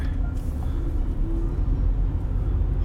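A returning fire engine rolls by in Shakujii, Nerima Ward, in the early evening, its heavy engine producing a loud, steady low rumble with road noise throughout, no siren and no voices.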